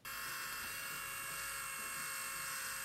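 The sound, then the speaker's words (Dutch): A small handheld 3D printing pen, a 3Doodler or 3Doodler Pro Plus being tested, runs steadily with a continuous high-pitched motor whine and faint buzzing, without pause throughout. “dat was een 3D-pen die David laatst testte in een video”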